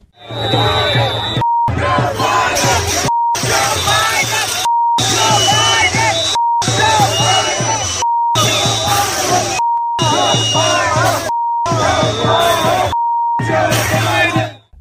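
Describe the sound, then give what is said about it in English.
A large crowd of pro-Hamas protesters at the White House chants profanity about Joe Biden loudly in repeated bursts, each phrase covered by a steady censor bleep tone, with brief silent gaps between the chants. “So I got to say that that is some of the most concerted "Let's Go Brandon" I have ever heard.”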